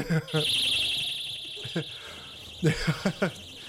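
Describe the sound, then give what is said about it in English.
Shrill, warbling personal alarms tied to balloons shriek continuously at a steady high pitch inside a church, set off by men who came in with them, with short bursts of people's voices breaking in over the piercing tone. “And these these dudes came in with uh, balloons with personal alarms on them, set them off in this church.”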